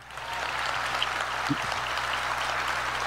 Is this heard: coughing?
no